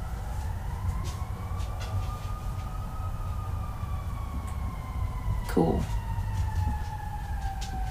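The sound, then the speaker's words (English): An emergency vehicle siren wails outside in long, slowly sweeping tones, steady and moderately loud over low rumbling traffic noise, with a brief spoken word from someone. “You know, I'm really glad that we have fire trucks and ambulances. But that's really irritating.”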